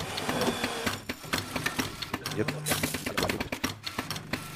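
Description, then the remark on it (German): An automatic espresso machine's pump pulses steadily while brewing a 35 ml espresso, with the grinder set one step finer than factory setting and low temperature; a loud mechanical rattle with rapid rhythmic ticks and buzzing that runs continuously through the moment. “Man hört hier auch, dass die Maschine anders taktet.”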